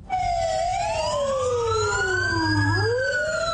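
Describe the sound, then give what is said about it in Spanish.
A fire truck siren wails loudly, its pitch sweeping up and down in long overlapping glides over a low engine rumble, with no one talking, as the fire truck joins a night street march by residents of Ginebra, Valle, carrying banners and lit candles. “con el carro de bomberos, pancartas con mensajes alusivos a la libertad y con velas encendidas más camisetas blancas, los ciudadanos y Ginebra se lanzaron a las calles”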